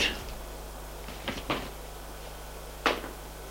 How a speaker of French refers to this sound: Il met une carte sur un petit écran. La porte s'ouvre. Il entre et ferme la porte.